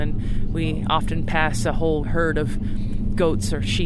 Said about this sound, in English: it's been an amazing journey in this van as it crawls across the Middle Atlas Mountains of Morocco